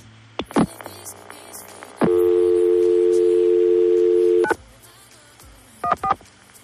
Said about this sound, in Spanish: es el tono, el tono de llamada del primer teléfono móvil en España. comenzó en 1983 y supuso un cambio radical en la comunicación.